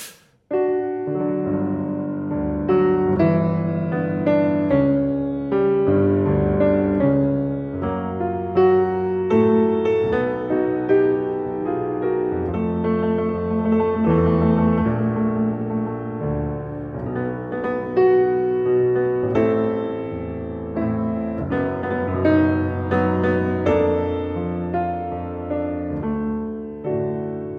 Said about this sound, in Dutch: Ja, je merkt, je komt eigenlijk bijna nooit over de centrale octaaf van de piano heen. Het blijft, blijft aan de, aan de, duidelijk aan de linkerkant. Het blijft aan de linkerkant.